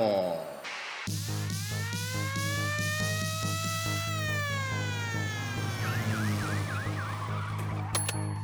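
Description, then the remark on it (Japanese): Loud electronic intro music made in GarageBand, with a steady beat and droning bass, a long rising synth sweep, and a warbling, siren-like synth line near the end, played without any talking. “さてね音楽変えてみましたよすごいねガレージバンドもう素人からしたらですねもう何でもできるなーみたいなもう持て余すぐらいですよ”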